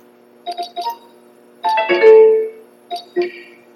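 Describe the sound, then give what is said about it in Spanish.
NVDA screen reader closing and restarting after Control+NVDA+F4 is pressed once: a few quick electronic tones, a longer swelling musical flourish, then two short closing beeps, clear with no talking. “Se cierra y se abre y se reinicia el NBDA.”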